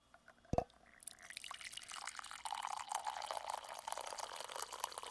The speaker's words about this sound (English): A coffee shop. In 1688, there are around 80 coffee shops in London, but only one of them is of interest to us the one on Tower Street, owned by George Lloyd.